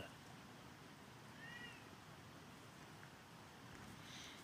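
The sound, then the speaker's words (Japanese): A cat meows once, fairly faint, as if begging for something, against a steady outdoor background of wind and low rumble by a bench; otherwise the scene stays quiet with no talking. “確実に何かをこれ催促するような感じですね”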